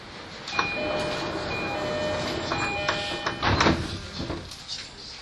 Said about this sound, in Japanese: 番線ドアが閉まりますご注意ください